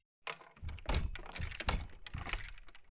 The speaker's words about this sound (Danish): Med kroppen fuld af spænding tager Geo fat i håndtaget for at åbne døren.